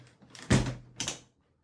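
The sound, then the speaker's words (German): A front door is opened after a knock: a latch clunk with a low thud, then a brief rushing scrape a moment later. Moderately loud, with no talking. “Oh, äh, es klopft an der Tür.”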